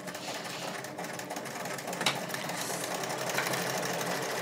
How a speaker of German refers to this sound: Also wer einen Obertransportfuß äh, hat, der darf ihn natürlich gerne nutzen beim Verarbeiten von Jersey, aber es ist keine Pflicht. Nun, das ist das schwarze Ding, was dann da bei der Nähmaschine auch immer so ein bisschen hoch und runter hoppelt.